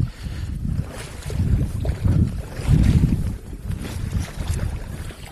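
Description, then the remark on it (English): Water laps and sloshes around a small boat in the middle of a lake, a steady low churning with gusts of wind buffeting the microphone, continuous with no voices. “I can still hear the water.”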